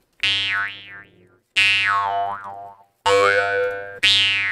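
A Ukrainian jaw harp forged from metal twanging in four loud strokes in quick succession, each a buzzing drone with bright overtones sweeping up and down in a wah-like warble, no voices.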